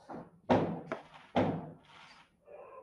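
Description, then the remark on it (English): Firecrackers pop outside for Chinese New Year, three sharp muffled bangs in quick irregular succession, each trailing off with a short echoing decay, with no talking. “Firecrackers. Chinese New Year.”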